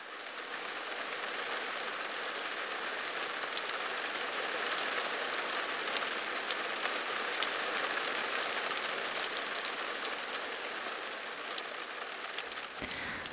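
Steady rain patters on a roof, a dense hiss of countless drops with occasional sharper taps, continuous and even throughout, with no voices.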